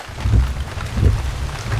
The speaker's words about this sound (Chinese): 雨滴用力地敲打着车窗，任谁来看到这个糟糕透顶的天气，都不会想要上山。